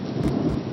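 A steady wash of heavy rain with a deep, rumbling roll of thunder underneath during a storm, loud and continuous for the whole moment, with no voices.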